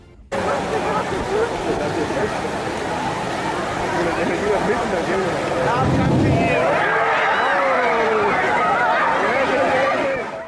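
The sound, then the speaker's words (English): A wave pool wave rolls in with a deep, loud rumble of rushing water midway through, then a crowd of swimmers bursts into overlapping high-pitched scared and excited screams and shouts over constant chatter. “like come on how cool was that like that that sound is so powerful and intimidating so loud and deep and then you hear just the it's a combination of like scared screams along with just excited screams.”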